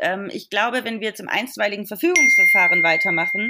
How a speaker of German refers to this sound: ups, sorry, das war mein Handy